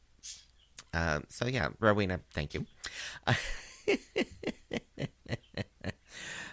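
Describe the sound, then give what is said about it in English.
Budgies chirp in quick, repeated bursts in the next room behind a curtain, a steady string of short calls while a person talks briefly over them. “Uh, so if you hear chirping in the background, again, it's it's just uh, my roommates' budgies.”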